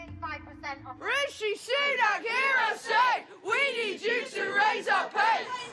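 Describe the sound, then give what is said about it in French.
A large crowd of street protesters in the United Kingdom, among more than half a million demonstrators, shouts in loud, rhythmic bursts, many voices rising and falling together in chant-like waves after a brief, quieter opening. “Dix ans que le Royaume-Uni n'avait pas vu autant de manifestants dans les rues.”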